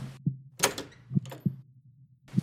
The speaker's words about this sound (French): Et dans la chambre de Léo, elle monte les escaliers, va face à la porte, l'ouvre